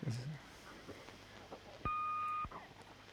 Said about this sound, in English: All right, so it's just a beep. Oh yeah. So some of them do like weird jingles and stuff.